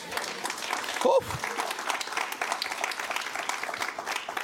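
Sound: audience applause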